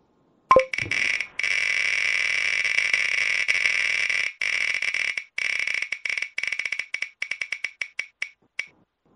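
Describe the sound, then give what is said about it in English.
A topic wheel spins to pick a question, with a rapid, dense rattle of clicks that gradually slows into separate ticks before stopping, fairly loud, with no talking over it. “All right, quick spin for one last question here.”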